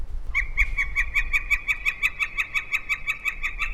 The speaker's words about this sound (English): So I'm going to play the flicker call again. Listen to the pitch and how it stays relatively the same.